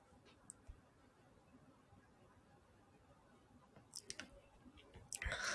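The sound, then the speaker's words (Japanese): Green coffee beans click and rattle as they are hand-picked and sorted: scattered light taps at first, then a cluster of clicks and a louder rustling shuffle at the end, with no talking. “えハンドピッキングを始めていこうと思います。”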